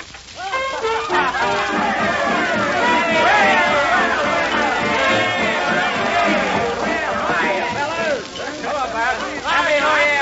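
A dense babble of many overlapping voices fills a parlor, a lively party crowd chattering steadily and loudly throughout, with no single voice standing out.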